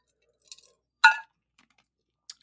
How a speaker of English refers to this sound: Ow. Um, I just dropped ice, and I'm chewing it.